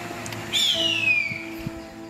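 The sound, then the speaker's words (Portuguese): An endangered harpy eagle chick, filmed by biologists, gives one thin, high whistling call that slides downward in pitch and lasts under a second. It is moderately loud over a steady low hum, with no voices. “A arpia, também conhecida como gavião real, é um animal ameaçado de extinção”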